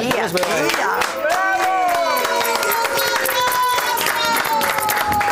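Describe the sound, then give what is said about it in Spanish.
A large audience applauds loudly and steadily throughout, the dense clapping mixed with cheering and shouting voices rising over it. “Y, toda esta gente que te quiere, yo creo que te van a dar un fuerte aplauso de corazón.”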